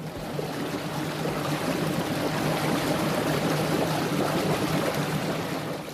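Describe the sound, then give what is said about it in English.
A water taxi boat running to and from Kapiti Island, off the west coast of Aotearoa in the Tasman Sea, motors steadily through water, its engine a constant low drone beneath a broad rush of splashing and churning water, continuous throughout. “We run a water taxi business uh, to and from the island.”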